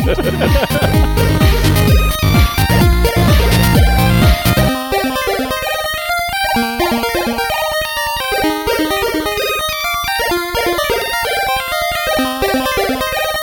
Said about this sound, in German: Jetzt versucht er mich zu übersteuern. Ich bin der Mann, der hier an der Outro-Musik den Gain-Regler bedienen kann.